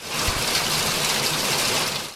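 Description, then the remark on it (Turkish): Heavy rain pours down in Foça during a severe downpour that also brought heavy hail, a dense, steady hiss with a constant roar of water across the whole stretch, loud, with no voices. “Foça'da ise sağanak yağışın yanı sıra şiddetli dolu yağışı görüldü.”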